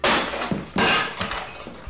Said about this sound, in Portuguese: Todos os três de nós caímos no chão de concreto, derrubando uma cavalgada de outros itens armazenados vagamente em um estrondo retumbante.